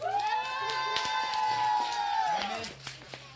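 A crowd cheers and applauds for the drummer of a band at Hocus Pocus: one long, high-pitched whoop holds steady for a couple of seconds before sliding downward, while scattered handclaps patter underneath.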